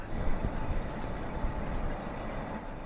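A ship's engine drones in a steady, continuous low rumble with a broad wash of noise over it, on calm, clear water, holding at an even level throughout with no voices.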